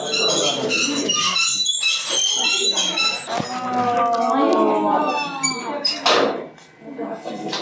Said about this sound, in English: The sound that you hear is the sound of the wheel that they are using to pull up with a rope the water from the well with a bucket. It's a bit squeaky. I guess it would need a little bit of oil.